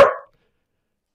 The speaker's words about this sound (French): ah, le chien. Alors, le chien a répondu. ouais, c'est mon chien qui, mon qui s'en mêle.